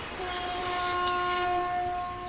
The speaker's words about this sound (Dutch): Zo, wordt even getoeterd. betekent dat we los zijn van de wal.